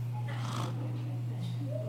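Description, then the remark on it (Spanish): A voice imitates snoring with one short, rasping snore-like snort, fairly loud, over a steady low hum, then trails off into faint breathy noise. “Sí, mire, si usted roncaba, ya no ronca más”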